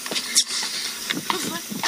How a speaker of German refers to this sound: Wow, dieser blöde Wind hier.